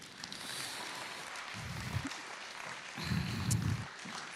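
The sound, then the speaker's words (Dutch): A crowd applauds with steady, dense clapping that holds at an even level for several seconds, with a few deeper thumps rising underneath the clatter of many hands. “Wauw, applaus.”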